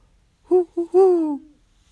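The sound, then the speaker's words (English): A male owl hoots along dark mountain ridges above Telluride in a quick series, two short hoots followed by a longer, drawn-out one that slides slightly down, clear with no other sounds. “These great raptors don't sing, per se, in the manner of true songbirds like warblers and robins, but the quick cadence of four or five hoots, hoo hoo”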